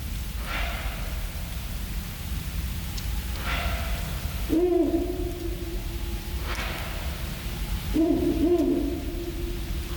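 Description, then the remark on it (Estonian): A pair of Ural owls call back and forth at night in a forest: deep, wavering hoots answered by a higher, rasping bark, repeated a few times over steady low background noise. “siin on Hancocku paari hääled öises metsas”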